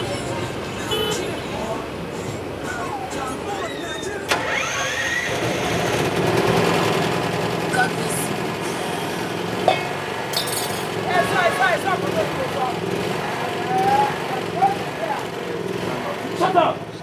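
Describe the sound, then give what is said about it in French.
A small 6 kVA petrol generator drones steadily throughout, a constant engine rumble beneath scattered clinks of glass and muffled voices. “6 kVA I pass my neighbor Bref, les gens I better pass my neighbor ça prend beaucoup de place sur la carte postale visuelle et surtout olfactive et sonore de l’égos.”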